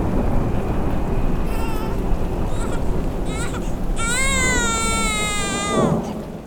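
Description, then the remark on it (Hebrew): A newborn baby, born in Kraków, Poland, in the quiet before World War II, cries in a few short, wavering wails, building to a longer, strained cry near the end, over a steady background rumble like rain. “בשקט שלפני מלחמת העולם, הגיח לאוויר העיר קרקוב שבפולין תינוק בשם ….”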